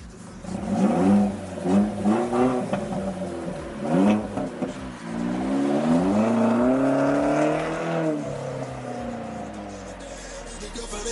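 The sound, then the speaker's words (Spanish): An Opel Astra sports car engine revs loudly, several sharp throttle blips rising and falling in pitch before a longer, sustained rev that slowly winds down. “Opel Astra es un coche deportivo. Si es el motor más grande puede tener 300 caballos.”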